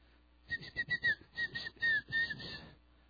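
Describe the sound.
A person whistles an imitation of birdsong: a quick run of bright, warbling chirps and trills, fairly loud, lasting about two seconds with no talking.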